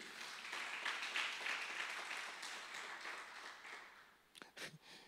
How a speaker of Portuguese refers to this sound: Você pode dar um aplauso ao Senhor aí?